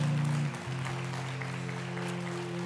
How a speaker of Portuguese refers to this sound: Aplaudo o Senhor.